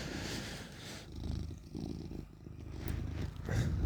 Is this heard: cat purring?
yes